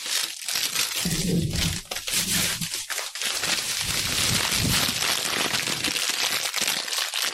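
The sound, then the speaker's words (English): Continuous crinkling of a plastic bag of strawberry Twizzlers candy being picked up, with sharp crackles and rustles filling the whole stretch, loud and busy without pause. “This is the sound of Twizzlers.”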